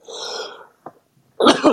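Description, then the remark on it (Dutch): A single loud sneeze: a breathy drawn-in inhale, a short pause, then a sharp explosive burst that trails off quickly. No talking. “excuses. Gezondheid.”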